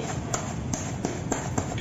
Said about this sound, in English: She's slapping her diaper, which is full of urine. Oh, well. that diaper's going to get a little more heavy here.